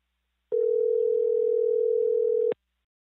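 A single steady electronic phone ringing tone, as heard through the receiver while a call connects, holding one even pitch for about two seconds before cutting off, clear with no voices.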